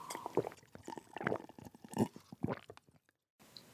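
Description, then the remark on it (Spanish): Someone drinking water during a live talk, a quick run of wet gulps and swallows in a steady rhythm, fairly quiet, ending in a brief silence. No talking. “Esto está siendo totalmente en vivo y en directo, así es que no me importa que tú escuches que estoy tomando agua, que me tomo mi tiempo para pensar, porque este es un tema extraordinariamente delicado.”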